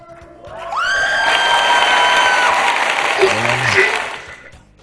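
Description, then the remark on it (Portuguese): A crowd applause and cheering sound effect, put in by the editor as applause for the editors, swells in quickly, dense and loud, with high whistles and whoops riding on top, then fades away after about four seconds. “Editor, coloca a salva de palmas aqui pra gente.”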